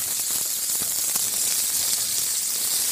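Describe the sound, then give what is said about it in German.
Meat searing in a hot frying pan, turned to brown it on all sides, including the narrow sides and ends. A steady loud sizzle with crackling pops throughout, alone with no talking. “Okay, also einmal richtig schön in der Pfanne durchdrehen quasi.”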